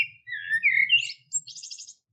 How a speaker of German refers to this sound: Schön Frühling draußen, Vögel zwitschern.